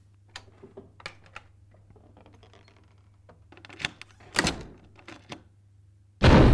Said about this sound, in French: Je doute qu'il ne m'accueille, mais au premier coup de sonnette, et après avoir jeté un œil par le Judas, il me fait entrer et verrouille sa porte derrière moi.